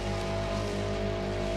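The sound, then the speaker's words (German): The engine of a ride-on lawn mower tractor drones steadily, a constant low rumble with a buzzing hum layered over a broad wash of noise, approaching and growing louder through fog. There is no talking. “Die Motorengeräusche kommen immer näher, werden lauter und lauter. Das ist definitiv kein getuntes Mofa.”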